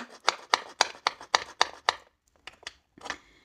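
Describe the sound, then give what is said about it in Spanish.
Crisp tapping and clicking on the small cardboard door number 23 of an advent calendar, about seven quick evenly spaced knocks, a short pause, then a few lighter clicks and a brief scrape as it opens. “Bueno, pues vamos a ir a abrir la puertecita número 23.”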